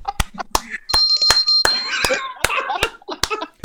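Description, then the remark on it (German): Sharp handclaps repeat in a quick, uneven rhythm, setting off a clap-activated bell that rings out brightly after the first few claps, with voices and laughter mixed in underneath. “Was denn? Eine Klingel? Ja, wenn er einen Blowjob will, dann klingelt er.”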